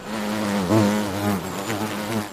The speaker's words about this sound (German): Es war ein wunderschöner Tag die Vögel zwitscherten am blauen Himmel und die Bienen summten zwischen den bunten Blumen umher.